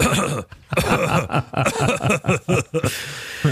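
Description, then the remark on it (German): A person clears their throat several times in quick, rough bursts, fairly loud, with brief pauses between the rasping efforts. “Ich muss mich mal kurz räuspern.”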